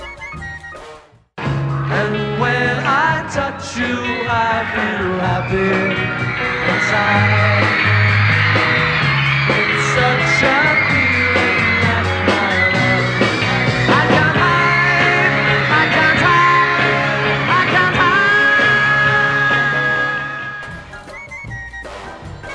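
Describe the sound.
A live band plays a pop song at a concert, almost drowned out by a huge crowd of fans' continuous high-pitched screaming, loud and unbroken from start to finish with the sung vocals barely audible beneath.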